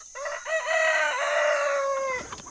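A rooster lets out one long, loud crow, rising and then holding steady for about two seconds, with faint chicken clucking around it and no talking.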